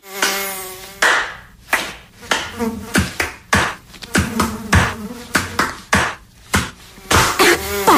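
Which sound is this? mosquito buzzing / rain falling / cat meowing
mosquito buzzing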